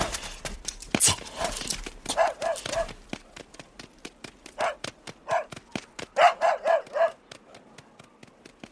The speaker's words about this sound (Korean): 멍멍이는 내가 구슬을 던질 때마다 이리 뛰고 저리 뛰며 마당을 휘젓고 다녔다. 멍멍이가 뛸 때마다 사람의 발자국보다 훨씬 긴 흔적이 마당에 찍힌다.